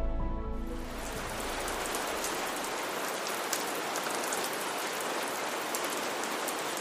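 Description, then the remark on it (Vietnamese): Steady early-season rain pours down over the forested mountains of the Thất Sơn region, around the middle of the fourth lunar month: a dense, continuous hiss of drops striking surfaces, with scattered sharper drips popping through the wash, after a brief low tonal hum fades in the opening moment. “từ khoảng giữa tháng tư âm lịch những cơn mưa đầu mùa mang đến sức sống mới phủ xanh cả vùng rừng núi”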